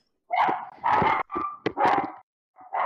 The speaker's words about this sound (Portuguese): Ai, ó, meus cachorros, tá?